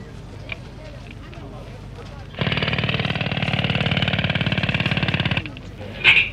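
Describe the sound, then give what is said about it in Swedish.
A rock drill buzzes loudly and steadily for about three seconds, its rapid hammering pulse boring for the first time into stone and earth at the site of Finland's future Olympic village, starting and stopping abruptly against quieter outdoor background noise. “Ni hör borrmaskinen surra. Det är första gången den gräver sig ner genom sten och jord på den plats där Finlands olympiska by ska resa sig för att om ungefär ett och ett halvt år hysa världens idrottsungdom.”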